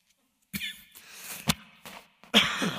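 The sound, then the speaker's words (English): A man coughs several times in close succession, with rough, raspy bursts and short breaths between them, and no talking. “She didn't cough after she told me that.”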